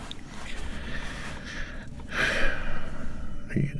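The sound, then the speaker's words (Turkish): A voice imitates the rapid, heavy breathing of a dying man, a run of breathy, noisy huffs that swell louder toward the middle and end. “Sık sık solumaya başladı. Böyle. Böyle soluyor.”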